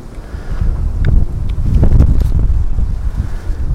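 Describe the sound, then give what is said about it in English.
Gusty wind buffets the microphone outdoors, a loud low rumble that swells and surges with faint rustling, no voices, steady throughout the short stretch. “windy.”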